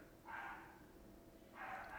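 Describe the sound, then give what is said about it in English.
A dog barks twice, two separate muffled woofs about a second apart, faint over a low steady background hum with no one talking. “sorry for anybody hearing a stupid dog bark in the background.”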